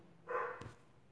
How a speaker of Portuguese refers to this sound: Eita, meu cachorro até latiu.